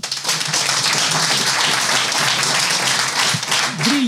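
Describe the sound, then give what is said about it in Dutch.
A crowd applauds steadily for about four seconds for three young leaders of the energy system sector, a dense, even wash of many hands clapping at full loudness, with a faint voice briefly rising near the end. “Applaus, dames en heren.”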